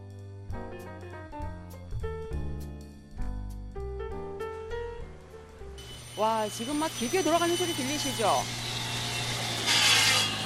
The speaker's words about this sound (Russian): Шумовой колорит этой улочки дополняет стук молотков и треск сварки. На этой небольшой улице, называемой «Скульптурной», сосредоточены почти 360 магазинов точного оборудования.